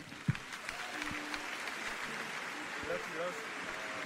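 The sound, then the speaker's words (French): Steady applause from an audience at the end of a live show, after its last song, a dense continuous patter of many hands clapping at even loudness for several seconds, with faint voices murmuring underneath. “Beaucoup d'applaudissements après.”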